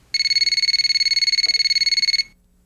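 A telephone rings with a rapid electronic trill, a fast buzzing pulse of bright high tones lasting about two seconds before cutting off, loud and alone with no voices.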